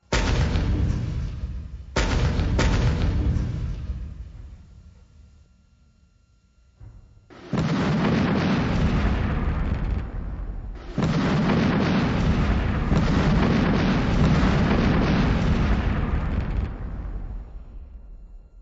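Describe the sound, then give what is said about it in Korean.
Coastal artillery guns at a shore battery fire one after another, 76mm flat-trajectory guns, then 122mm and 130mm large-calibre guns: heavy, deep booms, each followed by a long rumbling roar, with the later shots piling into a sustained thunderous blast. No voices. “(76mm) 평사포와 (122mm) 대구경포 그리고 (130mm) 대구경포가 차례로 불을 뿜는다.”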